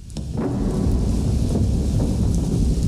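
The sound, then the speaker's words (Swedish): Steady hiss of light rain falling continuously, with a deep, rolling low rumble underneath like thunder or wind. No voices, just an even wash of weather sound throughout. “För det, här, det låter som att det regnar lite också sådär.”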